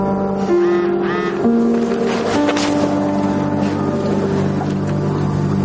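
mobile phone vibrating

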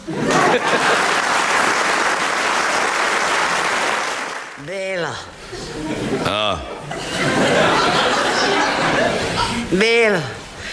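audience applauding

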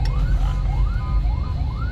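ambulance siren passing by

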